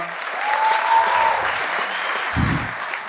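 Steady, dense applause from an audience fills the whole stretch, a broad wash of many hands clapping at once, fairly loud and sustained without pause.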